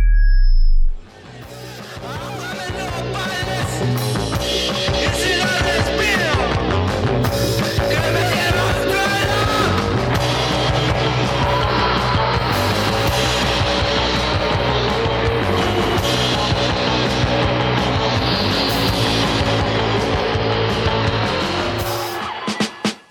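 A full-band song plays steadily and loud for the whole stretch, dense with sustained tones and instruments, with no talking over it, ending abruptly.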